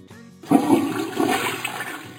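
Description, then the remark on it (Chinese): A toilet flushes in a home with a sudden loud whoosh of rushing water that swirls and gurgles steadily for about two seconds, preceded by a brief low hum. “斑点狗的坐便器”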